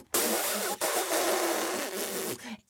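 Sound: voice imitating an elephant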